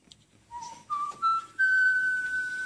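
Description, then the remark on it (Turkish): Someone whistles a short melody: three brief notes climbing step by step, then a long held higher note. The whistling is clear, with no talking. “Aa ıslıkla çok seviyorum evet.”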